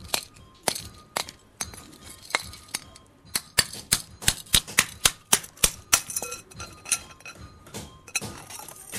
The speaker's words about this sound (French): Plongée dans l'eau, la coque de terre cuite se fend, révélant la cloche dorée.